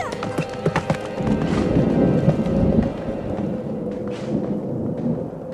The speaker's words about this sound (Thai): แล้วมู่หลานก็ได้ตัดสินใจควบม้าออกเดินทางไปจากเมือง